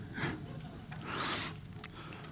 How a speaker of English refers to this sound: I can still hear pages turning, so I'm just giving you a little second.